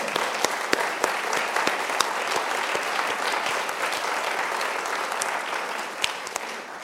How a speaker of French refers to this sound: Je crois qu'on peut l'applaudir encore une fois.